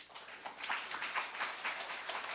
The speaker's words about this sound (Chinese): 嗯，也特别感谢自由军来到我们青岛啊。我们我想再次掌声欢迎一下我们自由军，谢谢。